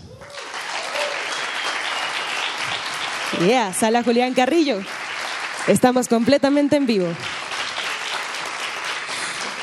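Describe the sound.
A live audience applauds steadily and loudly for the full stretch, a dense wash of clapping, while an announcer speaks over it in two short bursts.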